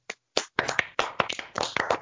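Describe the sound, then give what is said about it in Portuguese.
A brief mini round of hand clapping from a few people for the word "basculho", quick and somewhat uneven, a couple of seconds of sharp overlapping claps at moderate volume with no talking over it. “Não, eu queria, eu queria só aproveitar o um momento para pedir uma mini salva de palmas essa palavra basculho.”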